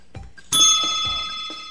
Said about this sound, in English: Oh, I'm sorry. That's my cell phone.